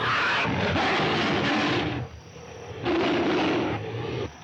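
A deep, slowed-down big cat roar used as a monster cry, as sound designer Murray Spivak did for the first King Kong film: two long rumbling bellows separated by a brief dip, loud and gravelly with no talking over it.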